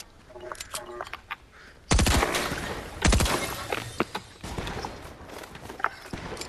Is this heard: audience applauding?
no